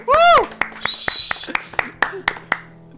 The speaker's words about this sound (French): Je m'applaudis tout seul.